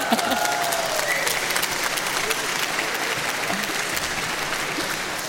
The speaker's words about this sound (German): Haben sie erst mal ein bisschen gebraucht, bis sie geklatscht haben.